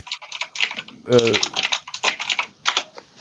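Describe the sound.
Rapid, loud clatter of computer keyboard typing, continuous in quick irregular bursts, with a short stretch of voice breaking in about a third of the way through.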